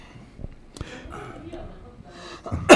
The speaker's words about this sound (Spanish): Y vos deja de toser así el micrófono. me perforaste el oído.